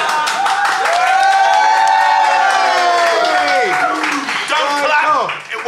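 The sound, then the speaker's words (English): A crowd claps and cheers loudly for several seconds, dense rapid clapping under rising and falling whoops and shouts, swelling then tapering off at the end. “Clap, you fuckers.”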